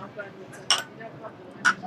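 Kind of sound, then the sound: household object, glasses clinking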